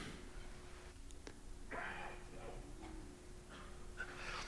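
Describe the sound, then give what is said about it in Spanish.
A person coughs several times in short, rough bursts spread irregularly across a few seconds, with no talking, over a faint steady electrical hum. “De acuerdo, estoy tosiendo y les voy a hablar acerca de sanidad.”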